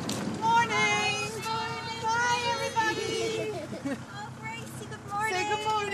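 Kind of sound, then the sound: vehicle, school bus arriving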